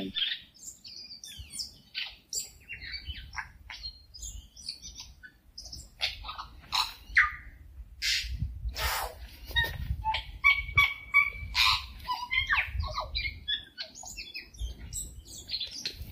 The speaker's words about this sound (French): Alors le son, ça sera euh, le son du touï, qui est un oiseau euh, en Nouvelle-Zélande que j'adore, qui a un, son tellement particulier qu'il est reconnaissable